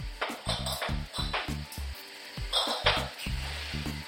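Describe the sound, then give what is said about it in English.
Apples being juiced and bottled on site at Sutton's Juice Factory, Cidery and Cafe at Thulimbah, near Stanthorpe, beside the New England Highway: a steady, rhythmic mechanical thumping from machinery, with bright glassy clinks and pings of bottles knocking together scattered throughout. No one speaks. “That's the sound of apples being juiced and bottled on site.”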